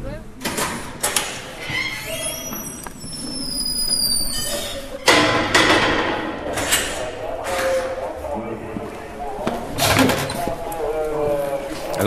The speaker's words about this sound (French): vous entend passer les différentes portes, les grilles de sécurité,